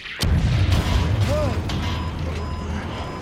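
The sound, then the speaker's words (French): A surface-to-air missile explodes, hitting Gary Powers' American spy plane over the Soviet Union: a sudden sharp blast that breaks into a loud, sustained low rumble and crackling roar, continuing for about three seconds without fading much. “Impossible, il a été abîmé par l'explosion.”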